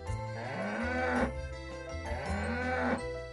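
A cow moos twice in close succession, each call a loud, drawn-out low bellow that swells upward before breaking off, clear with no one talking.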